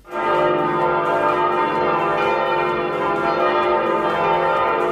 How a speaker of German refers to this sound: The church? The bells of the Ulmer Münster. I heard it's like 700 steps or something like that, so... 768 steps.